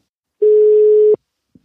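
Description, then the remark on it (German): A telephone dial tone sounds as one steady, clear beep lasting under a second while a call is being placed, ending in a click, followed by a faint short tap. No one speaks. “wir rufen mal Mozada an”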